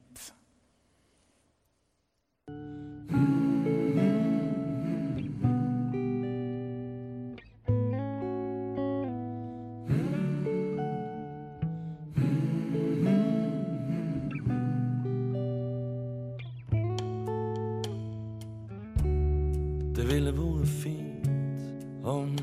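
The instrumental opening of a pop song released in 1999 begins after a brief quiet moment, with steady sustained chords and a clear melodic line playing at full volume, no singing yet.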